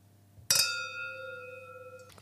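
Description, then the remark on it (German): A bright glass clink rings out sharply, its clear tone lingering and slowly fading as two glasses touch in a toast, with a faint second tap near the end. “Dann zum Wohl. Zum Wohl.”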